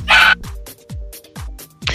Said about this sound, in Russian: а почему же у Брудуна все время гавкает собака?